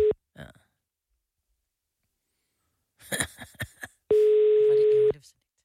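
A phone's ringing tone sounds while a call connects: a steady electronic beep, clipped at the start, then after a few short vocal noises a full one-second tone rings out clearly.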